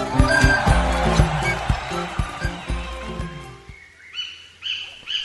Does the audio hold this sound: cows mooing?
no